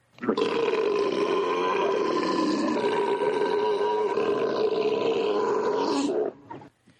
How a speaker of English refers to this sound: Ready? Here I'm going to burp.